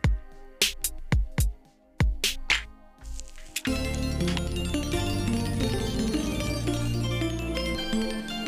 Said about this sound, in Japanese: これ何が入ってんだろうな。ちょっと怖いけど、押してみます。SP の、SP のね、えー、パッドに入ってる、あの、デフォルトで入ってるやつ。